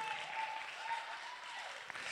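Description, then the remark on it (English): An audience claps their hands together in a dense, continuous wash of applause, steady and fairly loud throughout, with a faint sustained tone running beneath the clapping. “I wish you clap your hands right there.”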